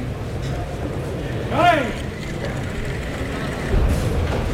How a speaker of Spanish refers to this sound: Ahora se abre la puerta de Toriles.